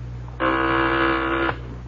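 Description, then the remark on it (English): A single loud, steady electric buzz from an intercom phone sounds for about a second over a low background hum, then cuts off abruptly. No one speaks. “Give me the intercom phone”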